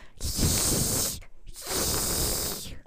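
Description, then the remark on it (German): A voice imitates the careful hissing of a cat named Nelly: two long, breathy hisses with a brief pause between them, each strong and airy, sustained for about a second. “Also wirklich vorsichtiges Hissen macht also, sie, ja.”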